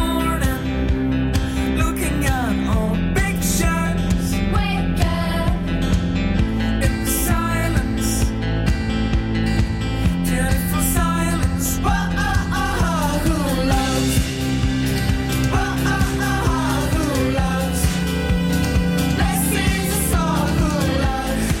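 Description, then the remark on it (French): An upbeat pop song by a four-piece band plays at full volume, with bass, drums and guitars under a melodic lead vocal, steady and continuous with no talking over it. “mais avant, il y a quand même eu un groupe avec un autre son, plus pop, un quatuor”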